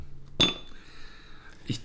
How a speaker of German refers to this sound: droppe jetzt noch ein kleines Zitronenstückchen ins Glas. Das schadet bestimmt nicht.